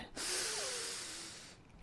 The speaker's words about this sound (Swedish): Andas in, andas ut